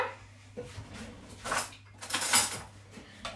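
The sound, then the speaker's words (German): A stuck kitchen drawer is yanked several times during cooking, each jolt setting cutlery and utensils inside clattering. The noisy bursts build, the loudest rattle arriving near the end. “Hilfe, warum geht die Schublade nicht auf? Jetzt.”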